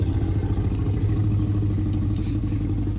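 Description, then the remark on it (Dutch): A deep, slowed-down growl of Buster, sound designer Gary Rydstrom's Jack Russell Terrier, used as the T. rex growl in Jurassic Park. It sounds like a dinosaur: a loud, continuous rumbling snarl that holds steady for about three seconds with no talking. “En het grommende geluid van de Rex is niet afkomstig van een poedel, maar het is het vertraagde geluid van Buster, de Jack Russell Terrier van Gary.”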